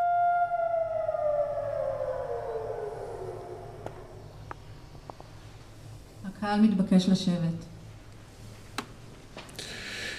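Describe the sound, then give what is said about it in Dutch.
A civil defense siren recorded at a remembrance ceremony in an earlier year holds a long wailing tone that slowly drops in pitch as it winds down, followed by a short burst of voice and quiet background noise. “Dan volgt de sirene.”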